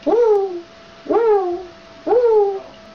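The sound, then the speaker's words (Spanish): A girl imitates an owl, giving three evenly spaced hoots about a second apart, each a short voiced call that swoops up and then slides down, clear with quiet gaps. “Y luego sigue con los más difíciles, el búho,”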